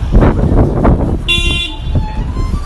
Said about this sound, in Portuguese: Isso foi a buzina, é óbvio.